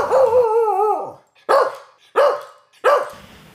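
A small dog lets out a wavering, whiny yelp, then three sharp, high-pitched barks spaced evenly apart, loud with no one talking.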